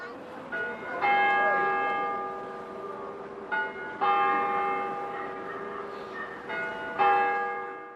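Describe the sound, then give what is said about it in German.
Large bells of the nearby cathedral in Turku, Finland, ring out at exactly noon on Christmas Eve, as every day, in overlapping peals, several strikes repeating roughly every few seconds with long resonant hums lingering between them. “An Heiligabend läuten wie jeden Tag um Punkt 12 Uhr die Glocken des nahegelegenen Doms.”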